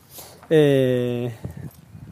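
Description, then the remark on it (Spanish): An old door that looks 18th-century, the one the dog goes out through, swings open with a long, loud, steady groaning creak lasting under a second, followed by a few soft knocks and shuffles. “¿Vais a escuchar un ruidito ahora? Es una puerta donde voy a...”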